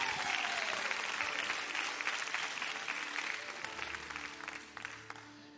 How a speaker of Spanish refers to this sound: Eh, ¿Cuántos tienen? 47, 8, 9, 10. Un fuerte aplauso.